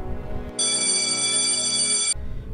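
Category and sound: signal or alarm, mobile phone ringtone ringing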